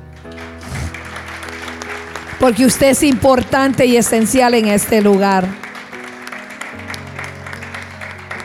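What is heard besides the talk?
applause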